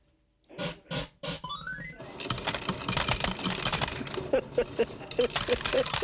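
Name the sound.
coin dropping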